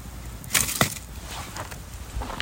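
Firewood being added to a campfire: a few sharp, irregular wooden clacks and knocks, the loudest two early on and another at the end, over a faint background hiss with no talking.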